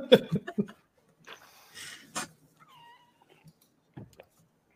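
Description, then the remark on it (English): A cat gives a short, faint meow, a thin rising-and-falling cry following brief bursts of laughter and voices. “Did I hear your cat?”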